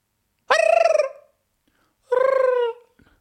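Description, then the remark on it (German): A voice imitates a creature's gobbling call in two drawn-out, warbling bursts separated by a short pause, close and fairly loud, with no other sounds around it. “Ja, klar hört man immer, wenn du in Schottland unterwegs bist, wenn du ganz, ganz, ganz vorsichtig hörst, hörst du immer so ein”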